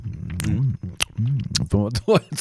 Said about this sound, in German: also ich kann da nicht aufhören, wenn ich ab und zu mal schmatz.